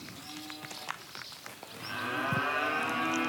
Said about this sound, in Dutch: Hoor je dat, Chris? Kijk, zo worden de koeien high.